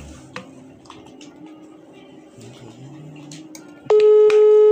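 A loud, steady phone ringback tone suddenly starts near the end, after a stretch of quiet, low room noise with a few faint clicks.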